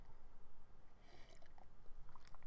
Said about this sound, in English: Well, I'll tell you after I take a sip of this lemon water. One second.